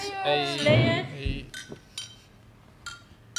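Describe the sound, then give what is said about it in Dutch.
Glasses of apple juice and beer clink together in a toast: a bright ringing chime at first, then several lighter, scattered clinks, with faint voices murmuring in the background. “Daarover gesproken, laten we even proosten.”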